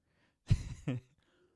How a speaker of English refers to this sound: So, I'm going to take a sip of a drink because I don't care.